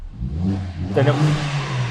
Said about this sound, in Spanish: tenemos el sonido más deportivo, más rabioso en este AMG 45. Hay muchos cambios para hacer de este el motor que es con 421 caballos.